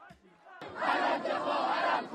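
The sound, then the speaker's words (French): A street protest crowd in Iran, honouring Mahsa Amini and protesting the morality police, chants and shouts together, a loud, dense wall of many voices that bursts in suddenly after a brief quieter moment and holds steady. “Depuis vendredi dernier, une partie de la population est dans la rue pour rendre hommage à Macha Amini et protester contre la police des mœurs.”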